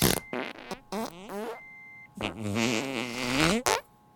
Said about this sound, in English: She farted like 18 million times.